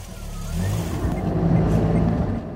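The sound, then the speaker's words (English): A car engine drones steadily, a low rumbling hum that swells slightly as it drives along, with road noise filling the background throughout. “Run to the car, on the road again.”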